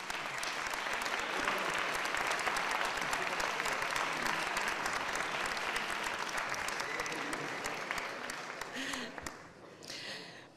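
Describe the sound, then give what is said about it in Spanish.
Sustained audience applause at a Spanish Mathematical Olympiad event, a dense crackle of many hands clapping steadily for about eight seconds before thinning and fading out, with a brief final swell at the end. “Doncs, eh, un aplaudiment per a...”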